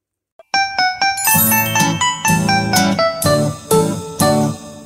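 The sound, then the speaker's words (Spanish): Bright, bouncy instrumental music, the intro of a requested song, starts after a brief tap, with chiming bell-like tones over a steady rhythmic pulse and a bass line, loud and continuous with no voices. “Vamos a escuchar la canción de Juan, Paco, Pedro de la Mar. Música DJ.”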